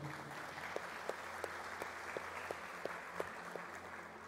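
An audience applauds steadily, a dense wash of clapping with sharper claps landing in an even, rhythmic beat roughly three times a second, with no voices over it.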